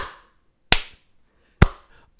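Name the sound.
hand clap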